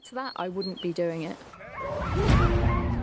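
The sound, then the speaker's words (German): Several sled dogs bark and yip excitedly while being harnessed, jumping and eager to set off; high-pitched overlapping calls in quick bursts, then a noisy rush of commotion and rustling takes over as the yelps continue. “Wenn wir sie einschirren, springen und bellen die Hunde, weil sie los wollen.”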